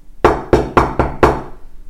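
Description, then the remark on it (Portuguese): Five loud, sharp knocks on a door in quick succession, slightly uneven in rhythm, forceful, each ringing briefly before the next, with no voices; knocking at night during a severe storm with lightning and thunder. “Então ele ficou alguns dias até que veio uma super tempestade, raios e trovões nessa noite, e de repente bate na porta com bastante força.”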